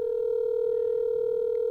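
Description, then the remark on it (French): A steady, unbroken telephone tone hums at moderate volume for the whole moment, clean and continuous with no voices over it, as a call is placed to a grandfather. “Ok, on l'appelle Papy.”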